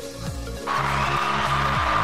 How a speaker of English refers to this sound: That sound you hear are a small group of people I keep trapped under my desk just to applaud you